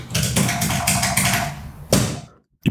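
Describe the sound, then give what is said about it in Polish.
Rapid, dense tapping on a hard surface, done instead of pressing a real keyboard, mimics fast keyboard typing, ending in a louder final strike like hitting send on an email that rings out briefly before one more sharp tap after a short silence. “z filmów zawsze kojarzę, jak ludzie piszą na klawiaturze”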